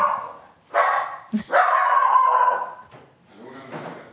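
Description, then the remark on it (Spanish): A dog named Luna barks loudly several times, a few sharp yelping barks followed by a longer drawn-out howling bark, then a quieter trailing bark. “Luna, perdonen que Luna se acaba de arrebatar. Tenemos perros en vivo aquí.”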